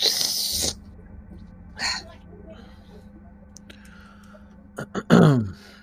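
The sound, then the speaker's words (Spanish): A loud, noisy slurp of someone drinking coffee, followed by a shorter slurp and then a snorting, throaty burst near the end. “sé cómo se hace, pero igual como soy un hijo de puta, lo hago así, agarro el café y hago así un ruido de la concha de la madre.”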